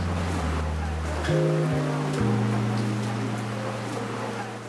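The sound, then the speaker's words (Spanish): Steady rain hisses across the whole clip in the dense, humid rainforest of the Chocó biogeographic region, one of the rainiest regions in the world, a dense even wash of falling water, with low sustained tones underneath that shift pitch a few times. “Es coquí y como en la segunda región con mayor pluviosidad en el mundo, está lloviendo.”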